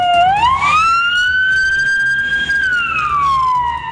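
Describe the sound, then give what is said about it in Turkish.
A loud ambulance siren, from ambulances taking the wounded to Ceylanpınar State Hospital, holds a long rising and falling wail with bright overtones, over a steady low rumble of traffic or engine noise. “Yaralılar ambulanslarla Ceylanpınar Devlet Hastanesi'ne kaldırıldı.”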